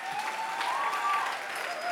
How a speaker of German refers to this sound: Deswegen ich sage dir, einen starken Applaus nochmal für unsere Dream Teamler.